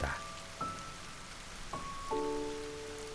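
Soft, steady rain hisses in the background while a few clear, ringing drips plink at irregular moments, each note lingering briefly. No voices are heard.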